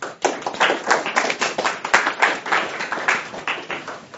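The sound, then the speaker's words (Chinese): An audience at a New York cultural salon event claps together to welcome a lawyer speaking on international law, many hands producing a dense, crisp patter that stays fairly even in loudness for about four seconds, with no voices. “对，那么大家掌声有请。”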